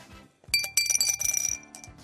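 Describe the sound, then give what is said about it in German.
Small hard objects pour into a glass, a quick flurry of bright clinks and rattles lasting about a second and a half, fairly loud, with no voices. “So, wenn ihr bereit seid, äh, schütte ich.”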